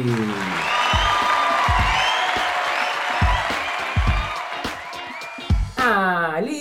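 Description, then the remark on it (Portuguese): A live audience claps steadily and loudly for several seconds to welcome a guest onto a show, with scattered whoops and cheers mixed in, before the applause fades and a voice starts speaking at the end. “E está aqui hoje, ao vivo, uma salva de palmas,”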